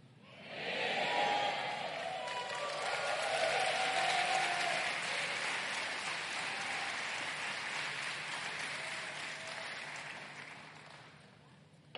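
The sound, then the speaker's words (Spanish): A church audience applauds steadily for about ten seconds after the pastor says he wants to hold a vigil, a dense, even wash of clapping that swells quickly, holds, then tapers off, with a few voices faintly mixed in. “Yo me alegro que usted aplauda, pero ¿y dónde la hago?”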